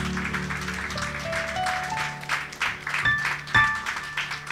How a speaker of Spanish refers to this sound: Dale un aplauso al Señor, mis hermanos.